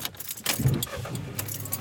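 Keys jingle and rattle inside a car, with rustling and a soft thump as someone gets back into the car and settles in, fairly quiet over a low interior hum.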